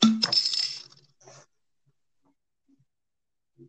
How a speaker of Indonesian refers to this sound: waduh suara apa tuh biasa saya ada yang jatuh tutup botol.